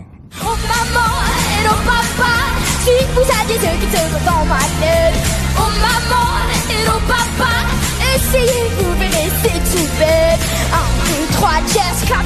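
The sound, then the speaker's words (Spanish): A bright, upbeat French children's pop song, the winning entry, plays loud and continuous, a 13-year-old boy's voice singing the lead melody over a steady beat and full backing instruments. “Esta canción ha sido la ganadora. Muy la francesa.”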